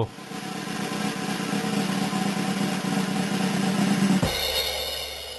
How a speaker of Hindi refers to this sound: drum roll के साथ welcome करते हैं